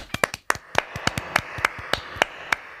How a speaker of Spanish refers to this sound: y el aplauso, por supuesto.